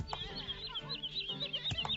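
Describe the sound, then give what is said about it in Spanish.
A bird chirps in a quick, steady run of short, high, thin notes over a low background rumble, clear, with no one talking. “El pobre pájaro no te ha hecho nada.”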